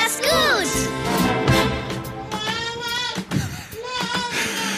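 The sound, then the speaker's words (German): Two babies babble and squeal in high, sing-song voices that rise and fall, overlapping almost continuously for a few seconds in the background as they play on the floor. “Ja, man hört es schon im Hintergrund.”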